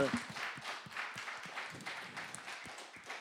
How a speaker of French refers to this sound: À toute façon, on peut les applaudir, gang. Ils ont été super.